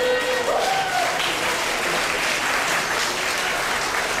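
An audience at Zhongshan Presbyterian Church applauds steadily to welcome the pastor at a Christmas gathering, a dense wash of many hands clapping at an even, sustained level throughout, with a brief tonal note near the start.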